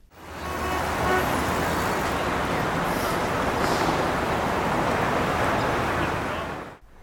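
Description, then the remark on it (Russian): A steady, dense rumble of bus engines idling and running at a bus turnaround loop, a continuous roar of motor noise that fades in and out at the ends, with no one talking. “Где-то слева шумели моторы. Ага, это автобусный круг, который был в 100 метрах от перехода через шоссе.”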